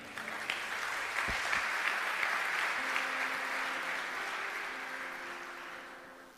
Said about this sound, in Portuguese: Você diga amém, aplauda o Senhor que é bom.